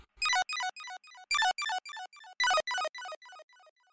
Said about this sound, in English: Do you guys hear a chime? Oh, oh yeah, I do actually. Yeah. Uh, it's time for messages from Earth.